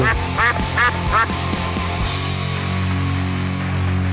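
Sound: duck quacking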